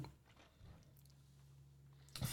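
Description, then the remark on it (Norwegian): Soft chewing noises of someone eating a New Energy snack, with a few brief crunchy bursts, heard against a low steady hum, ending in a louder rustling crunch. “Jeg måtte bare ha i meg den new energy.”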